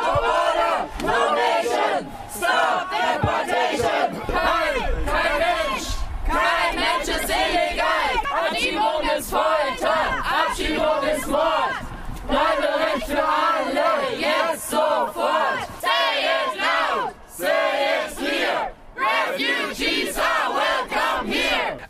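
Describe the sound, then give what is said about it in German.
A large crowd protesting deportations chants slogans in loud, rhythmic unison on an airport observation deck as deportees board a bus to their plane, the shouted phrases repeating steadily over a continuous roar of many voices. “Als die Abgeschobenen im Bus stiegen, der sie vom Terminal zum Flugzeug bringen sollte, wurden die Sprechchöre auf der Aussichtsplattform lauter.”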